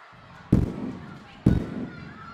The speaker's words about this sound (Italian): Petardi? di prima mattina a San Carlos. Beh, Natale e Capodanno sono già passati, ma magari qualcuno ha ancora voglia di festeggiare.